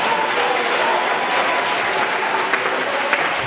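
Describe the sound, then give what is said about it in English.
A large crowd claps steadily, a dense, sustained wash of applause from many hands filling the space without pause, fairly loud, with no voices rising above it, as the audience claps unto God as a healer. “If you believe God's a healer, why don't you clap unto Him right now?”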